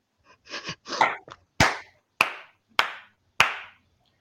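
A brief burst of hand-clapping, a few rustly claps at first and then four loud, sharp claps spaced evenly in a slow, deliberate rhythm, with no voices.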